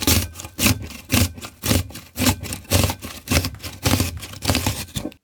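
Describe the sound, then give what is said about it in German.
A cucumber is pushed across a vegetable slicer in a steady run of about a dozen crisp scraping strokes, roughly two each second, with no talking. “Ich habe hier einmal den Hobel.”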